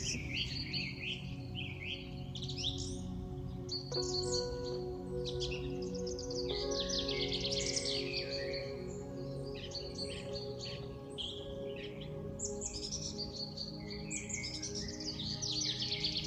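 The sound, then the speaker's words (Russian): Many birds chirp and trill continuously in a pine forest, overlapping calls over a steady low background hum, with no one speaking. “В этом лесу вы слушаете пение птиц, прислушайтесь”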